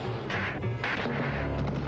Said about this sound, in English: He's smacking himself.